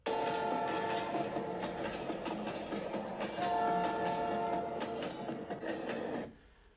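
A train rumbles steadily along the tracks, loud, with a broad mechanical roar, faint clanking and a few tonal whines before the sound cuts off abruptly near the end. No voices.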